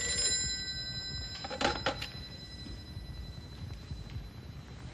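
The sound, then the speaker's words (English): An old-fashioned telephone bell at a ranger station rings in one short, rattling burst partway through, set against a steady background hum with no voices. “Ranger Station, Grey Wolf speaking.”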